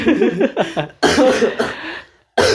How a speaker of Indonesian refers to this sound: aduh batuk gue